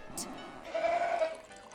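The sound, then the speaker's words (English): A goat lets out a single short, wavering bleat in the middle, moderately loud, over a faint hiss of background noise with no one talking. “I think I saw a man go into one of the back rooms with a goat.”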